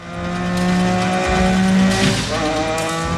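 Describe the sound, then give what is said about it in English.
A race car engine roars steadily at high revs for a few seconds as it drives around a track, a loud, buzzing whine that holds its pitch and shifts slightly near the end, with no one talking. “drives around the track or something.”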